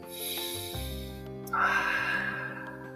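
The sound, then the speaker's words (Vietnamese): Someone draws in a long, deep breath through the nose, demonstrating taking in the full aroma of food, a sustained airy sniff that swells partway through and carries on to the end, with a faint low hum underneath. “sau đó thì khi mà mình gắp thức ăn lên ấy, thì mình hãy hít trọn vẹn cái hương thơm nói đây thầy lại muốn hít thở”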